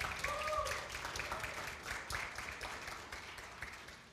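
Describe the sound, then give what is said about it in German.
Steady applause from an audience for the absent illustrator of a story's pictures, dense rapid clapping that holds at a moderate level throughout and fades slightly toward the end, with a faint voice briefly audible over it. “Sie ist heute leider nicht da, aber aus der Ferne vielleicht mal einen Applaus auch noch für Miriam.”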